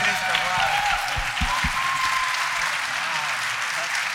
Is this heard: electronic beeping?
no